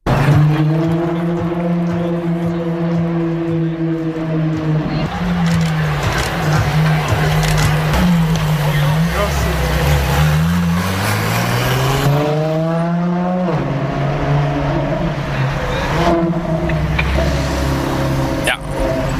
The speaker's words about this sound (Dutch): voor sommige petrolheads een genot om naar te luisteren. En voor Ferraristi het onmiskenbare geluid van een Ferrari.